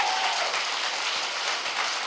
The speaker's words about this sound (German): Kann man ruhig mal klatschen.